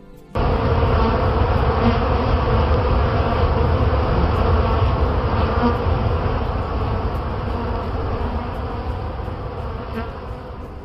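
A dense swarm of bees buzzes steadily, a thick low droning hum that starts abruptly and stays loud throughout, fading only slightly toward the end, with no voices.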